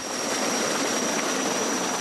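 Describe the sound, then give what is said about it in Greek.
A steady, loud engine roar from a firefighting aircraft passing overhead during a wildfire near Mandra and Magoula, fanned by strong winds, a dense rushing drone with a faint high whine running through it, unbroken for the whole two seconds with no voices. “Οι δυνάμει πυροσβεστική πλέον δίνουν μάχη με το χρόνο για να οριοθετήσουν τη φωτιά όσο πετούν τα εναέρια μέσα.”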